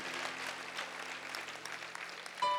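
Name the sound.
audience clapping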